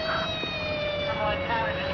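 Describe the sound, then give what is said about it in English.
A steady police car siren wails, its pitch sinking slightly as the car drives away in the rain, holding a continuous tone over a low rumble of traffic noise. “I stood in the doorway and watched a police car drive red away, her face in the window blurred by rain.”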